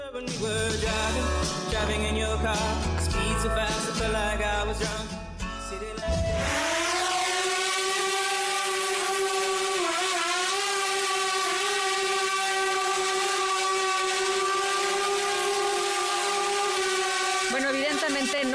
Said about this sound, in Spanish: no es una horda de mosquitos, es el estridente sonido de un dron moderno.